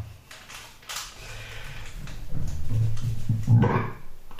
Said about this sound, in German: Genau, das war ein Rülpser.